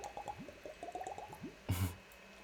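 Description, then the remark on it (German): Drinking a shot of cold Jägermeister herbal liqueur: a quick run of wet gulping and swallowing sounds, followed by a short, loud breathy exhale. No one speaks. “wenn wir vom Festival reden und gerade einen Jägermeister trinken”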